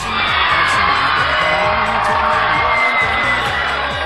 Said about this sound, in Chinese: 你们不感觉此处该有掌声吗？你不感觉此处该有激烈的掌声吗？还应该有一些尖叫声啊！